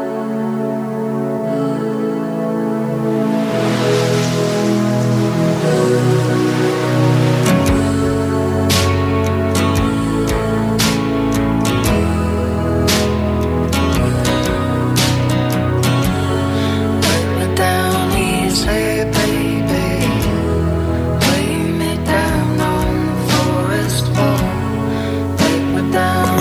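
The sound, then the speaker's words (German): Ocean waves wash softly beneath a steady tune by an indie folk duo from Vancouver Island, British Columbia, Canada. The surf's hiss is most noticeable in the opening seconds before plucked strings and percussion fill the mix at a constant, fairly loud level. “sogar noch schön mit ein bisschen Meeresrauschen im Hintergrund gerade.”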